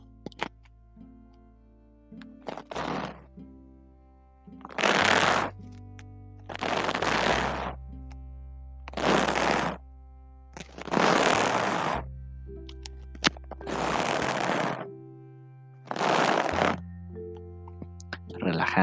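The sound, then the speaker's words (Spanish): A hairbrush, used as a hair-salon ASMR trigger, sweeps through hair in slow, steady strokes: about seven or eight soft bristly swishes spaced roughly two seconds apart, over a quiet low hum in the background. “Va a, va a sonar así como cuando te cepillas el cabello y así como tú lo escuchas.”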